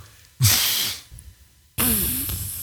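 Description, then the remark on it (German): Two deep, loud nasal sniffs, a short sharp one followed after a brief pause by a longer, drawn-out inhale, with no talking. “Kann ich, aber warte, ich, ich schnief jetzt mal tiefer.”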